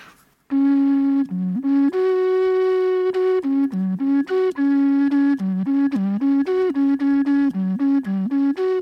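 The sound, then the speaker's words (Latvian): A whistle made from a nut shell plays a simple tune, its buzzy, reedy tone stepping between a few low notes in a steady, continuous run, loud with no voices. “Nu, skan diezgan tradicionāli, bet uh, tieši tas izpildījums, tas, ka viņš ir no vaurieksta, ir tāds piesitiens.”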